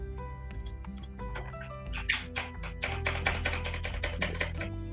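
Rapid, continuous clatter of a single keyboard key being spammed over and over during a video game session, forming a dense rattling burst that grows busier midway, layered over a steady tonal music bed.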